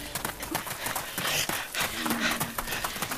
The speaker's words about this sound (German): Also, dieses komische Grunzen hört sich schon ganz schön gruselig an.